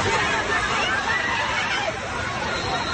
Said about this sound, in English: Yeah, people screaming, running for their lives. You hear the whistles of lifeguards getting people out of the pool.